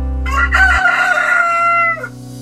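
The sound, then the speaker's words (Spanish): A rooster in the Colombian countryside crows once, loud, a long rising-then-falling cock-a-doodle-doo lasting under two seconds, over a faint low background hum. No one speaks. “Así, con el canto del gallo y el cacareo de las gallinas y todos los mágicos sonidos del campo colombiano, les damos los buenos días a todos nuestros amables oyentes.”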